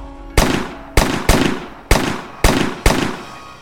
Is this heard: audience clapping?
no